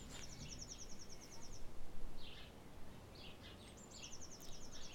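Soft wind rushes steadily in the background, swelling briefly in the middle, while high, rapid trilling chirps from birds or insects repeat faintly at the start and end.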